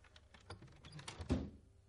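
A door swings shut as a woman leaves: a few light clicks and rattles from the latch, then one solid, low thud that fades quickly into quiet. No one speaks.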